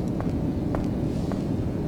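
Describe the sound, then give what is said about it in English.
Slow, evenly spaced footsteps of a person walking in total darkness, about four steps in two seconds, fairly soft against a steady low rumbling background, with no voices. “It's just me walking through the dark.”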